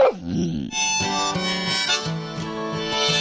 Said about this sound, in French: pas comme ça, de l'harmonica de verre. C'est beau, non cette harmonica-là, on ne souffle pas dedans